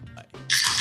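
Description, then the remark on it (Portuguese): A beer, an IPA from Prússia Beer, is cracked open live, a sudden loud fizzing hiss that bursts in and holds steady after a moment of soft, low background murmur. “já é uma tradição do Hopcast abrir uma cerveja aqui ao vivo”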